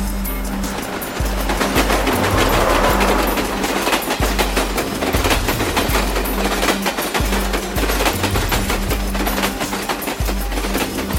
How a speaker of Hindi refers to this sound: अरे मुझे तो ट्रेन बहुत ज्यादा पसंद है इसीलिए ऑफिस अगर दूर हो तो रोजाना लोकल ट्रेन में रास्ता देखते देखते जाने का मजा अलग से आएगा